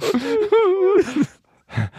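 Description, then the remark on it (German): A voice fakes exaggerated weeping, a drawn-out wavering wail that breaks into a choked sob and then a short sniffling whimper after a brief pause, fairly loud. “warum weinst du?”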